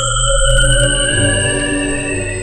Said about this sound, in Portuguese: Estão vindo! Estão vindo um zumbido! Parece vir de dentro do objeto. Vou aproximar o microfone.